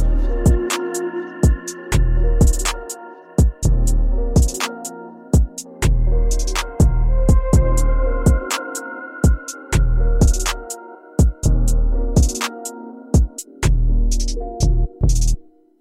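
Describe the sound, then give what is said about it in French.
A French pop song with sung vocals plays loud, driven by punchy, regular drum hits and sustained harmonic layers across the whole stretch, with no talking over it. “Et voilà, c'était nous de ….”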